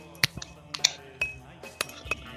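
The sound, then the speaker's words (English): Glasses clink together in a toast, a quick irregular series of bright, ringing taps, some sharper and louder than others, with no one talking. “Clink, clink.”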